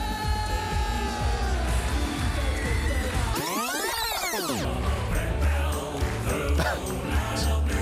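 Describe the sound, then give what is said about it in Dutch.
A whole hall full of people sings along loudly and continuously to jingles, many voices blending into a thick wash of sound, with a brief swooping rise-and-fall tone cutting through midway before the singing resumes. “wow, die hele zaal zingt dit mee.”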